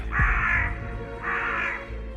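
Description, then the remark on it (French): A crow gives two loud, harsh caws about a second apart, each a drawn-out raspy call standing alone with no talking, against a low background rumble. “Et ce cri alors que vous avez entendu là à l'instant, c'est celui du corbeau”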